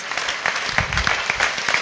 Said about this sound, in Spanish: Un aplauso para las mamás, porque de verdad, las mamás cero egoístas.